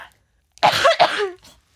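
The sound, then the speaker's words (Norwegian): A loud burst of harsh coughing: two rough hacks in quick succession trailing into a raspy throat-clearing wheeze, then quiet. “Bare ikke host på meg.”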